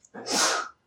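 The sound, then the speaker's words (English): A single sharp sneeze bursts out, loud and breathy with a quick intake just before, then silence. “Bless you, ….”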